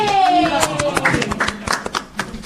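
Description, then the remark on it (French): An audience applauds steadily to welcome a volunteer from the crowd, many hands clapping in a dense, overlapping patter that carries through the whole moment, with a faint voice briefly rising above it at the start. “Oui, on applaudit.”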